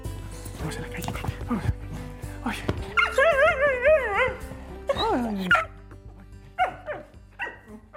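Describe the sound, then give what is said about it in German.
A dog with much flying experience vocalizes with a few sharp barks and yips, then a long, wavering whine in the middle, followed by shorter barks trailing off toward the end. “Bei Nacho, dem Hund mit viel Flugerfahrung, ist es nun soweit.”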